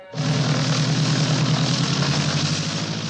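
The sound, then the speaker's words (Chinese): The aircraft engine started by the character Du Qiu to take off over pursuing police cars starts up abruptly and settles into a loud, steady roar with a deep throbbing hum underneath, running continuously without any voices. “杜秋开动了发动机，终于从要阻拦他的警车上面腾空飞起。”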